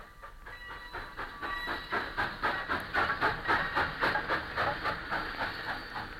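A steam train puffs as it pulls away from a station, its rhythmic chuffs steadily quickening and growing louder over a hissing, rumbling background. No voices are heard.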